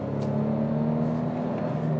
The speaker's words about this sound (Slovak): No, nemal by som to tak točiť, lebo je to nové auto. Tak 16 km, no. Motor 25 už. Už 25, ale tak vyskočia iba 3 valce, takže to je pohoda.